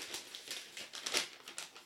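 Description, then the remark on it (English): Paper rustles and crinkles in a quick series of crisp bursts as sheets are shuffled and rearranged, with no voices over it. “I'm rearranging uh, whilst you're rearranging okay. your paper, and then tell me.”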